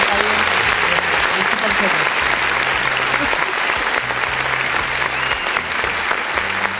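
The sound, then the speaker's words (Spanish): An audience claps steadily for about seven seconds, a dense, even wash of applause that stays loud throughout, with a low humming tone running faintly beneath it. “Yo ya no tengo abuelitos, amigos, pero los que sí tienen, muchas felicidades, aplausos, por favor,”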